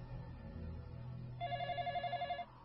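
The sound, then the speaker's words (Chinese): A landline telephone bell rings at night in a rapid warbling trill for about a second, a bright pulsing tone with harmonics, over a low steady hum, then cuts off. “我屋里的固定电话又响了起来。”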